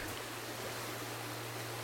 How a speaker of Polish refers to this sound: Więc e, tak przy okazji, oto tutaj szumi woda, płynie woda jak czas, banalne, ale prawdziwe, a ta konkretna woda płynie w parku w Druskiennikach.